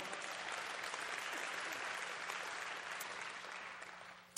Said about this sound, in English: so, now I'm going to talk about applauding, um, just for this morning, okay? Because uh, we like to applaud when we hear something that we agree with or we hear something good from God's word, but I'm going to ask you to be careful with that during